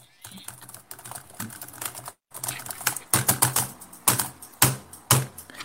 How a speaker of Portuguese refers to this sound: Olha só, você tá só bateu na máquina de datilografia aí, né?